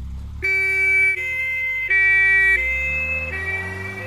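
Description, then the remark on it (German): An ambulance siren wails in alternating two-tone blasts, switching pitch roughly every second, loud and steady over a low rumble of road traffic, with no one speaking. “Seit dem Fieberkrampf unseres Sohnes höre ich diesen Sound nochmal ganz anders.”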